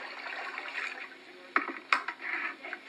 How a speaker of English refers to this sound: Plug the sink, fill it with water, let it stabilize a minute.